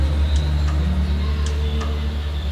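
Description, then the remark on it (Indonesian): Faint, sharp knocks sound in loose pairs, about five light taps spread unevenly over a constant low hum, quiet, with no one talking; the knocking comes from the ceiling of a bedroom during the night before dawn. “Wah, gak beres ini, Mes karena sebenarnya saya orang cuek tapi sedikit takut akhirnya sampai subuh saya masih belum tidur antara suara ketukan itu”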